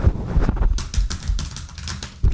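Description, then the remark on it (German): Fast typing on a computer keyboard, a quick, uneven run of sharp clacking keystrokes, with no voices over it. “Das, das, ist eine vernünftige Tastatur.”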